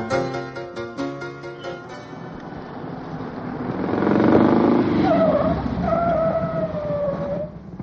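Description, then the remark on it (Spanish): An old, smoke-belching car's engine hums and revs as it drives by, building to a louder, fuller roar midway before easing slightly, with a few high, drawn-out tonal cries over it toward the end. “¿Su carro funciona con leña? Arroja humo como si viniera incendiado.”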